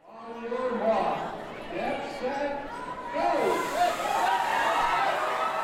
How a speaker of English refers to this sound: What you're hearing is the sound of people cheering for their small, very low to the ground furry friends. This is Dogtoberfest. Dogtoberfest is an annual weenie dog race in Helotes, just outside of San Antonio.